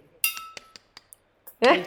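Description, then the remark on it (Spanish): Metal taps on a glass of beer as a toast: one bright ringing clink, then four or five lighter, irregular clinks, followed by a brief voice at the end. “plim, plim, plim, plim. O sea, varios, varios golpes ahí.”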